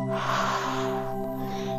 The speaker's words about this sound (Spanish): Voy a inhalar, exhalar, inhalo, exhalo, inhalo, exhalo.